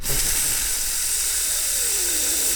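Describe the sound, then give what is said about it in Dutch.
A voice imitates the constant background hiss heard in Microsoft Teams meetings when everyone is muted, with a steady, breathy shushing noise held for a couple of seconds, fairly loud, with no talking around it. “Ja, Daar zit ja, voortdurend een ruis onder dat wordt ergens ingevoerd.”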